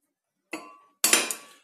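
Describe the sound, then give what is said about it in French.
Metal utensils clink against a pan or bowl while an omelette is being prepared: one bright hit, a short pause, then a quick cluster of three or four ringing clatters that fade out. No one speaks. “Je suis en train de préparer une omelette il est je ne sais pas quelle heure, 19h, je ne sais quelle heure, je ne sais combien.”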